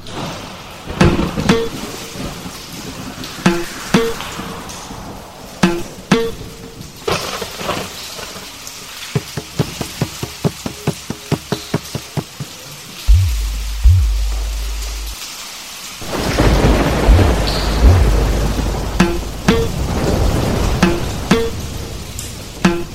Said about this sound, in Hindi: हे भगवान कितनी तेज वर्षा है यहां तो कहीं दूर दूर तक आसरा भी नहीं दिखाई देता वर्षा की बूंदे नदी पर और खिले कमल के पत्तों पर पड़कर एक अलग ही लय की रचना कर रही हैं वर्षा के सावेक से मानो अनेक वर्ण जन्म ले रहे हैं